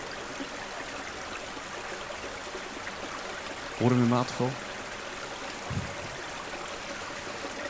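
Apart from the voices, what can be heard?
babbling brook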